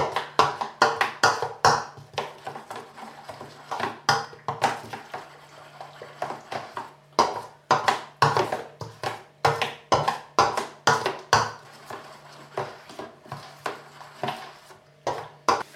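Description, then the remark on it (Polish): A spoon stirs thick potato pancake batter, with about two tablespoons of oil added, in a bowl, making steady, rapid clinks and wet scraping against the sides, with no talking. “mieszam ze sobą starannie.”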